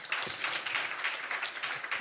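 A small group applauds, a steady, dense patter of overlapping hand claps that holds an even, moderate level for about two seconds, with no voices over it.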